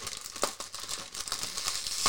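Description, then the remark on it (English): Crinkling plastic wrapper of an individually wrapped Baci chocolate being handled and pulled open, a steady run of sharp crackles and rustles with a few louder snaps, no voices. “So let's uh, try and open it. It's individually wrapped out, and it's like plastic.”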